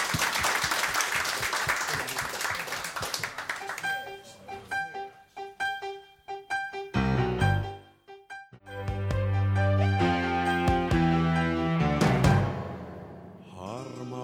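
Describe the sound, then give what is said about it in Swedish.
An audience on the radio programme Radio Total Normal bursts into dense, steady applause for roughly four seconds, then it fades as tonal music with sustained notes and chords takes over for the rest. “En applåd till, absolut.”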